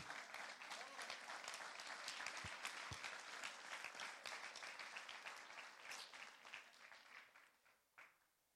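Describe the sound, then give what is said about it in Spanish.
An audience breaks into sustained applause, a dense wash of many hands clapping at steady loudness that thins out and fades over the last couple of seconds. “Solo los ungidos pueden aplaudir.”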